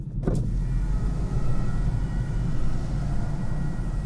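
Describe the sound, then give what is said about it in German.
Cars in a traffic jam make a steady low rumble of engines and road noise that holds level throughout, with a brief sharp click near the start and no voices. “Hier ist Stau und ich weiß nicht, ob man es hört.”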